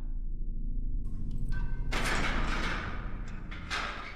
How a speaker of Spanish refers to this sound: rechinaron los cerrojos de la celda número 4 en la penitenciaría.